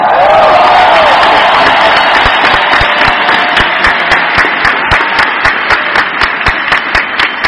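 A crowd bursts into loud applause with cheering and a whoop at the start; the clapping then settles into a steady, rhythmic unison beat that continues to the end.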